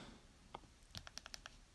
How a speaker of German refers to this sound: Deshalb hilft es VoiceOver mal schnell auszumachen, wieder anzumachen. Das macht man in der Regel durch dreifach Klicken auf die Seite.